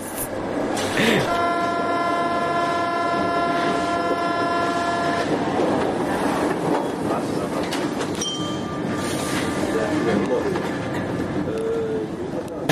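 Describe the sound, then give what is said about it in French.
A passing train sounds a long, steady multi-tone horn blast lasting several seconds, loud over heavy rumbling wheel and rail noise that continues after the horn stops. “Si je devais décrire une journée de travail, oh, je prends le train à 5h36.”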